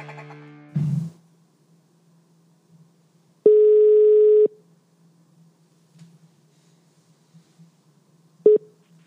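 A phone line rings out: one steady, clear tone lasting about a second, then a brief clipped beep near the end, all over a low electrical hum with a short click early on.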